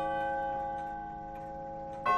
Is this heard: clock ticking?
yes